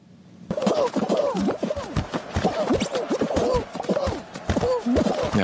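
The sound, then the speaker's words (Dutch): A busy, loud flurry of cartoonish squeaks, bumps and springy boings as characters in the video game Fall Guys, a brightly coloured hit for PC and PlayStation, collide one after another in a nonstop jumble. No one speaks. “het ging specifiek om het tegen elkaar botsen van de poppetjes”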